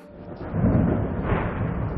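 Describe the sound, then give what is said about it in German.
A deep, rolling rumble of thunder from storm clouds swells and lingers, low and heavy with a broad roar that rises, peaks, and stays sustained throughout, like a storm rumbling overhead. “Gewitterwolken.”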